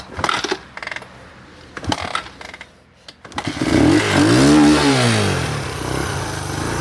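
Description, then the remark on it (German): A motorcycle in neutral is kick-started: several sharp mechanical clunks and rattles from the kick lever, then the engine catches and revs up loudly with a rising and falling roar before settling into idle. “Dieses Motorrad wird angekickt.”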